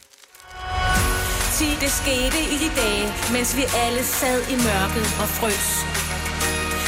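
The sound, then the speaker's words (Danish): The third Christmas song plays at full volume, a lead singer carrying the melody over a dense band backing with steady bass, continuing without a break. “Så hvad er dommen over julesang 3?”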